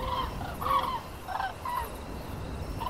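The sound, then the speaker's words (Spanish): A large flock of birds flying overhead calls back and forth, with honking, goose-like cries overlapping at a steady mid pitch over a low, constant rumble. No one speaks. “Y se llamaban las unas a las otras.”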